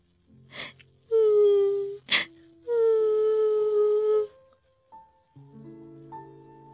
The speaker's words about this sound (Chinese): 它看到地上的龙眼河和清澈的雪水，回想起昨晚的大火，伤心的哭了起来。